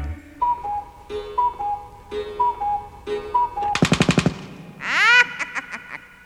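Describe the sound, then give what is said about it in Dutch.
A clock strikes five o'clock, chiming a repeated two-note melody, clear and bright, followed by a quick rattling burst of strikes and a rising whistle-like tone. No one speaks. “Want slaat de klok vijf uur.”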